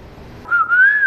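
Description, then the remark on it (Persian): A person whistles a single bright, wavering tone that slides gently up and down in pitch for about a second, clear and fairly loud after a brief moment of low background noise. “در ضمن چی دیدی سوت میزنی”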